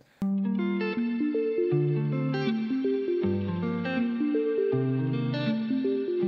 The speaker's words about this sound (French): et on entend bien qu'elles se complémentent et ça crée un schéma intéressant de questions et de réponses. Le, petit synthétiseur pose des questions et la guitare va y répondre.